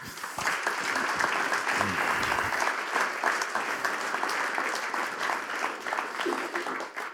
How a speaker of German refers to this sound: Herzlichen Applaus